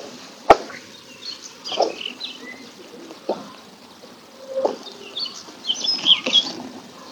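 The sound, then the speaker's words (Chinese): Daurian redstart calls: short, high chirps and thin whistles come in scattered bursts, with a sharp click near the start and a soft, steady background hiss. No one speaks. “还真不是柳莺，北红，羊尾渠，羊尾渠的叫声。”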